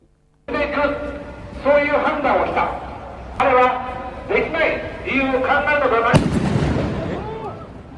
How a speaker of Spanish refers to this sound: estaba dando su discurso subido a una especie de cajita, una especie de tarima muy pequeña, cuando se escuchan esas dos explosiones y alguien, un hombre de unos 42 años, eh, fue detenido, dispara dos veces un arma